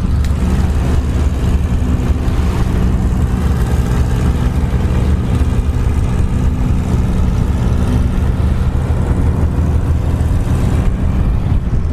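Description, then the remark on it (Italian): A fishing boat's engine drones steadily and loudly throughout, a deep continuous rumble with a constant low throb and broad hiss, with no voices; the boat carries powerful lights to attract fish, night fishing off the Portofino promontory at 22:50 on 29 July 2021. “Ecco appunto, questo è il rumore del motore della barca che ha con sé le luci molto potenti che servono per richiamare i pesci.”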